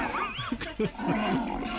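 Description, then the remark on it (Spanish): A tiger of India roars, a rough, snarling growl that rises and falls in a few quick bursts over nearly two seconds, with no one speaking. “vale, pues entonces el, el, eh, un tigre se lo comió, se comió el ladrón.”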